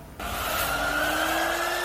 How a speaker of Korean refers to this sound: 책이 혹시 젖었나? 아, 아 그랬을 수도 있다 아니, 책을 소독하는 건가? 기계 아. 소리가 생각보다 많이 들렸어요. 책 소독할 수도 있겠다, 요즘 시국이면.